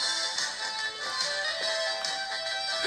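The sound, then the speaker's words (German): A loud, bright electric guitar solo from a cartoon theme song plays continuously, its distorted, sustained notes shifting quickly with driving energy. No one speaks over it. “Was ihr hört, ist einfach der Pilot, der gerade auf seine E-Gitarre schreddert und damit den Jet fliegt.”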